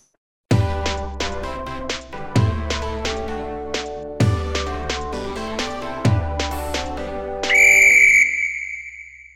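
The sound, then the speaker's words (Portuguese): A short, upbeat musical jingle with punchy bass hits and a riff that repeats four times, ending in a loud, sustained whistle blast that rings out alone for about a second. “Mas roda a vinheta e toca no Franco que é gol.”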